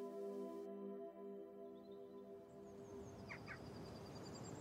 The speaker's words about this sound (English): And as you come out there, often the birds will just all flutter out.